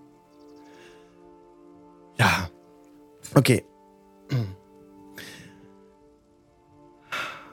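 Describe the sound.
Light rain patters faintly in the background beneath sustained string tones, interrupted by several loud throat-clearing or coughing bursts and a couple of brief spoken words.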